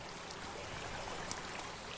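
Gold Creek at Snoqualmie Pass, a clean, cold mountain creek, rushes and gurgles in a steady, unbroken wash of water, fairly soft and even throughout, with no voices or other sounds.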